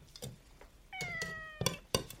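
Chicory, a brown Korean Shorthair cat, lets out one drawn-out meow that slides slightly downward in pitch. A few sharp clinks sound around it, like a dish or bowl being set down, as chicken breast is served instead of salmon.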